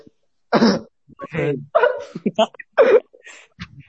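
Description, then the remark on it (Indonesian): A person coughs in a few harsh bursts, interspersed with voiced sounds and brief speech-like noises, loud. “Waduh, ada yang batuk. Parah nih.”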